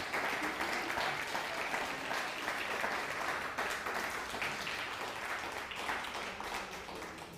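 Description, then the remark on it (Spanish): Sustained applause from an audience for a viewer watching from Costa Rica, a dense, steady wash of many hands clapping at once, holding loud and even for several seconds before easing slightly at the end. “Papá de Anthony Cabezas, Luis Cabezas, fuerte aplauso también a Costa Rica.”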